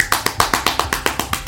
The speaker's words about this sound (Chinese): 哇，台下响起热烈的掌声